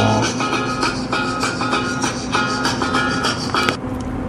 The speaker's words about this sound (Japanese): 若干着信音入りましたけど今なんといいタイミングで愛する妻のジェニファーから電話がかかってきましたね